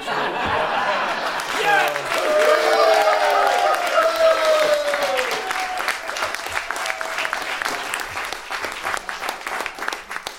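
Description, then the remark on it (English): A crowd bursts into sustained applause for two people, dense clapping lasting about ten seconds, with laughter and cheering voices rising over it early on before the clapping carries on steadily. “But before that, if we could please get another round of applause”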